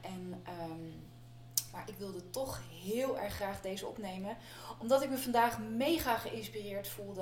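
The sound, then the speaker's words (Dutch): A steady, low electric fan whir hums continuously behind a person talking over it on one of the hottest days, the drone unchanging from start to finish. “En ik neem deze, deze uitzending op op een van de heetste dagen eh, dus je hoort het zoomen van mijn ventilator achter me.”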